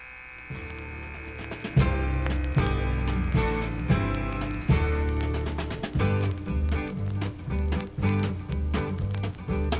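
A folk song recording plays on M Crow Radio, with full rhythmic chords and a steady bouncing beat, loud, an instrumental stretch with no singing.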